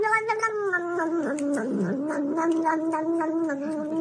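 A cat in a played video clip yowls in one long, drawn-out wavering cry that rises and dips in pitch, loud, continuing steadily for about four seconds with no talking.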